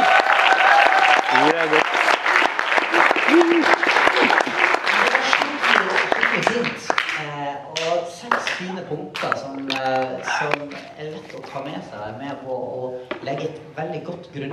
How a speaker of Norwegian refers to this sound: Ja, men gi han en applaus.